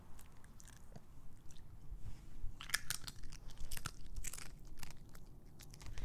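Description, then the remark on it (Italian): Crisp crunching and munching as Winkle, a pet, chews a potato chip near a microphone, with irregular bursts of crackly bites over a low background rumble; no talking. “Ecco il suono di Winkle che mangia patatine.”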